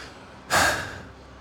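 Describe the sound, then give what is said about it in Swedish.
A single deep, gasping breath drawn in sharply before sliding down into the waves, a loud rush of air that swells quickly and then trails off within about half a second, with no talking. “Du tar så många djupa andetag du hinner innan du glider ner mot vågorna.”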